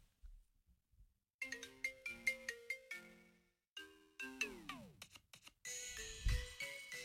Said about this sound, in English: Oh, let me hear this ringtone. Put that ringtone up against that.